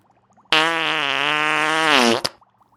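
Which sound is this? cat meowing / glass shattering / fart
fart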